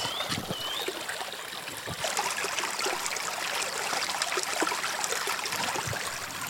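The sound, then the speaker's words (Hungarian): A gentle stream babbles steadily over rocks, a continuous soft splashing and trickling, with no voices and a faint bird chirp early on. “Azt éreztem, hogy ez a kellemes, lágy csobogás micsoda erőt bír magában.”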